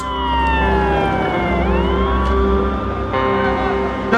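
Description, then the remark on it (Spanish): An ambulance siren wails loudly, its pitch gliding down and back up over a steady low engine rumble, with no voices; ambulances attending at the Plaza de Mayo, Argentina. “Y nosotros fuimos a la Plaza de Mayo a atender con las ambulancias.”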